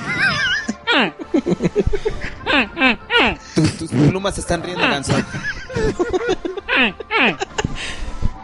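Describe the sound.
A person imitates a goose, letting out a rapid, continuous run of nasal, squawking honks, loud, with brief pauses between bursts for several seconds.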